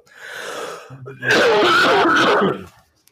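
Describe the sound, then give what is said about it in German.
A person clears their throat and coughs, a rough throaty rasp followed by a loud, sustained hacking burst, then it trails off into quiet. “Sorry, ich muss mal eben äh, husten.”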